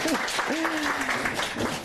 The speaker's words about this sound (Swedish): Tack. Eh, tack. Tack för en, en applåd.